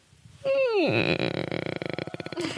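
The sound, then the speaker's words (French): A voice imitates a creaking door: a drawn-out groan sliding down in pitch, then breaking into a rapid, rattling creak of tight pulses. It is fairly loud, with no talking. “Tu fais bien le grincement.”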